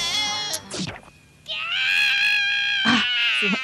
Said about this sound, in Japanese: この悲鳴がすごい、うん、すごいですよね